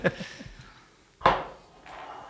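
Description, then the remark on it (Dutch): Beer bottles clink as they are handled: a couple of sharp, bright glassy knocks with a short ringing tail, then a softer rattle. No one speaks. “ik zie jou al klaar met de flesjes.”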